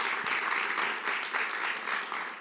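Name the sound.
audience applause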